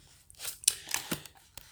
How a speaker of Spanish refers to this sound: Eh, ese es el ruido de un papel.